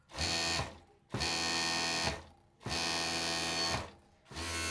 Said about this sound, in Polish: To jest maszyna do overlocku. Jak brzmi overlock?